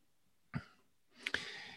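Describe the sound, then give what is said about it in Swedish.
A short coughing fit behind the speaker, from someone with lung problems: one sharp cough, a brief pause, then two quick rough coughs trailing into a raspy, breathy exhale. No one speaks. “Jag har en liten hostattack som pågår bakom mig här, därför mutar jag periodvis så är det med, eh, med lungproblematik.”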